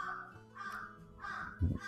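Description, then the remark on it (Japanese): Repeated harsh crow caws ring out in a steady series from about 5 meters away, with a low thump partway through and no talking. “でもまたちょっと離れた5メーター先ぐらいでカーカーってます。”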